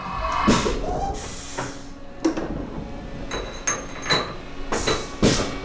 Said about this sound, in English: He fastens a few drill bits into larger cartridges before loading them into the CNC mill.